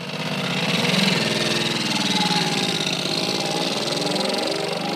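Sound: moped engine running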